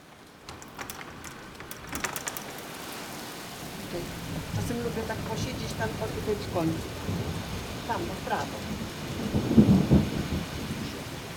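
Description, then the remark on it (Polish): Steady rain patters and hisses throughout while low thunder rumbles in the background, swelling briefly near the end. A man speaks quietly over the downpour from a balcony where the rain does not reach, looking out over grain fields, trees and flowers. “Tu jest balkon, to tu nie pada deszcz patrzę na świat, patrzę na te zboża, na drzewa, na kwiaty.”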